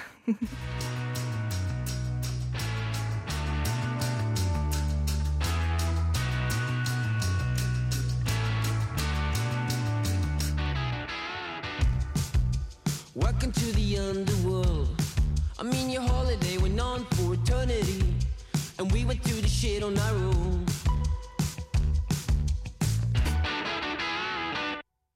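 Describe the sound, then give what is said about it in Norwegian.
A pop-rock song with sung vocals and distorted guitar, loud; a steady droning opening gives way to a choppier, rhythmic section as the singing comes in. “de beskriver seg selv på sin Facebook-side som et pop-rock-band-aktig ish ting”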